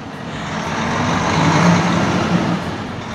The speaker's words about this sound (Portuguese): Ela pilota caminhões fora de estrada que transportam até 400 toneladas por dia de calcário da mina. E este é o motor do caminhão.